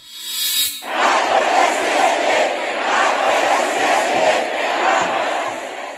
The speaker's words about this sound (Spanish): Ahora, ese día, el domingo, se escuchaban gritos de fuera López, muy fuertes, y narco presidente.